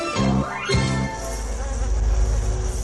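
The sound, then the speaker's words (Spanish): Loud honeybee buzzing with wavering pitch as the insect passes, then a steady lower hum continues; no one speaks. “Pero las abejas reales, las pequeñas obreras del campo, corren el riesgo de no vivir más.”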